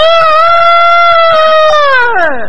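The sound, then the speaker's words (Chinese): A voice imitates an old rooster's crow: one long, loud, strained call held steady for about two seconds, then sliding downward in pitch at the end, with no other talking. “这老公鸡，呃，得得，”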